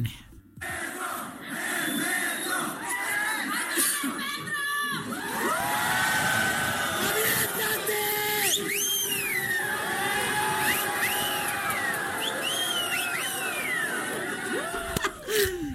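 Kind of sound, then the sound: crowd, crowd cheering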